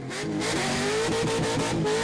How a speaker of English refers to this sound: Now, I reckon that the fans, there could be some LS limiter action going on out the front of Old Mate's porch here. There was a wave of tremendous noise.